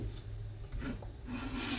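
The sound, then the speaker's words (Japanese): A wooden spatula scrapes steadily around a frying pan for a couple of seconds, gathering up food left right to the rim, a gritty rasping that swells slightly midway, with a low hum underneath and no voices. “縁のところまで残っているものもしっかり取ったりして結構使ってます炒める時はもちろんなんですけど皿を洗う前とかフライパンを洗う前にこのヘラでこうちょっと”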